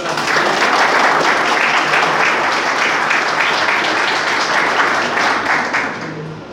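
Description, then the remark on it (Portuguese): A crowd applauds steadily as a bouquet is presented, a dense, sustained wash of many hands clapping at once that holds loud for about six seconds before tapering off slightly at the end. “Ai, que lindo a foto, uma salva de palmas para”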